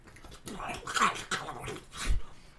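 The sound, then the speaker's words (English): A person voices a massive, bright red crab with a few throaty bursts of growls and whines, rising and falling over a couple of seconds, with a deep grunt near the end. “And you see one of the doors on the far side pops open, and a massive crab, bright red crab, snaps its claws towards you.”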